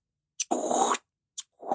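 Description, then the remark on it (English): Paper tearing in two repeated, rhythmic strokes as a person tears a piece of paper while a water faucet is turned on. Each stroke is a sharp snap followed by a loud, ragged rip, with a rushing watery hiss mixed in and no one talking. “oh, I had this this this rhythmic thing that comes in at one point, and it was a combination of me tearing a piece of paper and turning the water faucet on.”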